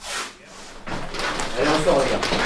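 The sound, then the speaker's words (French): Metal football studs clack and scrape against the concrete floor of a tunnel as players knock them against the slab to remove grass gathered during warm-up, a busy run of sharp hard knocks filling a few seconds, with indistinct voices murmuring underneath. “Le bruit des crampons sur le béton du tunnel. On claque les ergots de métal contre la dalle pour enlever l'herbe accumulée pendant l'échauffement et les plaques de terre qui tombent de nos chaussures ont des formes de continents.”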